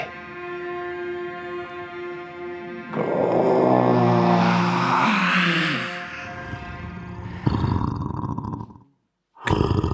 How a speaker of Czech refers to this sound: Když došel do prostřed onoho ostrova, z dálky uslyšel hlas nestvůry.